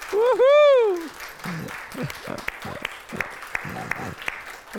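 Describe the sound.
An audience breaks into steady, sustained applause with scattered sharp claps, opening with a loud, rising-and-falling whoop before voices murmur and call out beneath the clapping.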